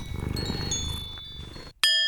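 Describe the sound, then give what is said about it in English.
A low, rhythmic purring rumble fills the first part, then a Dragon Bell is struck once, loudly, ringing out with a bright, sustained shimmer of layered overtones. “And there's the Dragon Bell.”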